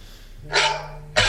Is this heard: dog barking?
yes